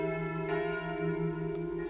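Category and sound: signal or alarm, convent church bell ringing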